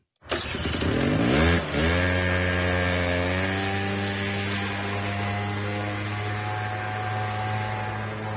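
A small two-stroke moped engine starts abruptly and revs up, dips briefly, then settles into a loud, steady buzzing idle, with no voices.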